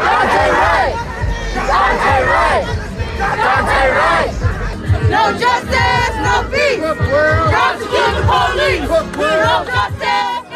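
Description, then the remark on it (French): A large crowd of protesters, gathered at night despite a curfew, chants loudly in unison the name of the victim Dante Wright and calls for the police to be prosecuted, voices rising and falling in repeated rhythmic phrases, with shouting and background babble filling the gaps throughout. “Les manifestants chantent le nom de la victime Dante Wright et appellent à poursuivre la police.”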